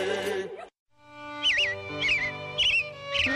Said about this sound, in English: It Looks like the robins are getting ready to celebrate Valentine's Day today.